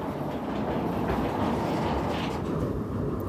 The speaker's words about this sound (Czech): Oranžový důlní vláček mizí ve Štole a další skupina turistů se vydává na zkoumání Zlatého dolu.